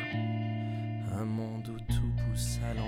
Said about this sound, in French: La chanson que vous entendez ici porte le même titre que notre livre.